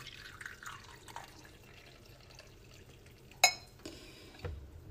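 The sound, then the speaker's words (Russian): Brewed coffee trickles quietly into a cup, with soft liquid gurgles, one sharp ceramic clink partway through, and a duller knock near the end. No one speaks. “Наливаем.”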